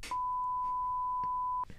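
A single continuous censor bleep, a steady mid-pitched tone lasting about a second and a half, cutting over speech, with brief bits of voice just before and after it.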